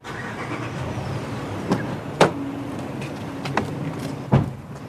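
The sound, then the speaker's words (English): A pickup truck's engine rumbles steadily, broken by several sharp thuds like a door slamming shut and the cab being jostled, as the driver gets in and heads to a sawmill in Brattleboro, Vermont, with no talking. “hops in his pickup truck and heads down to a sawmill in Brattleboro, Vermont.”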